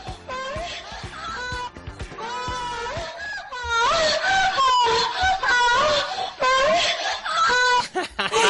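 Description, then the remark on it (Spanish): A loud, shrill prank scream sound effect, with several wailing, warbling shrieks in quick succession that rise and fall in pitch, piercing, with no talking. “le hicimos la broma del, del, del gritito.”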